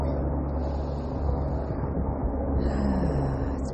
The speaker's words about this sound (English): A helicopter overhead.